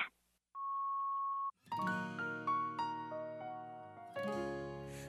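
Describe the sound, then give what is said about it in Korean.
A single steady electronic beep tone of a voicemail, lasting about a second, sounds clearly after a brief hush, then music with a melodic sequence of notes starts right after it. “음성 사서함으로 연결되며 삐 소리 후 통화료가 부과됩니다.”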